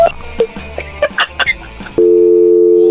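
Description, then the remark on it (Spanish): Brief muffled talk and clatter give way to a phone line tone after a hang-up, a loud, steady electronic hum that fills the last second on its own. “Oye, Choco, ¿por qué le colgaste?”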